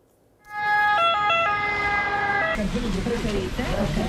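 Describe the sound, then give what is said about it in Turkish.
A loud two-tone ambulance siren in Naples, Italy, alternates between high and low pitches for about two seconds, then cuts off, leaving a rumbling wash of traffic-like noise and faint murmuring. “Napoli'deki acil servisler dolunca hastalara ilk müdahale ambulanslarda yapıldı.”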